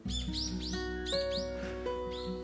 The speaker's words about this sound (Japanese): なんかめっちゃ口笛吹いてる人がいるね